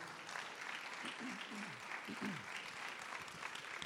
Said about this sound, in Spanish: ¿Alguien da un aplauso al Señor por eso?